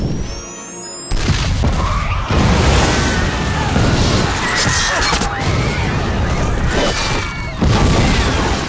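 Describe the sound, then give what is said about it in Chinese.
A movie theater blows up: after a brief, quieter opening, a massive explosion bursts in. It keeps roaring for several seconds with dense crashing and rumbling debris and a few faint whistling tones over the din. “没等两人刚走出去，电影院就炸了。”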